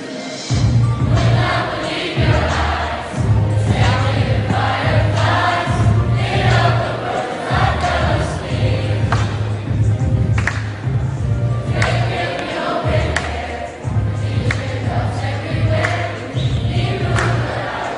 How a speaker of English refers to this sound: This is a live recording, so we'll hear lots of enthusiastic whoops and cheers and chatter in the background.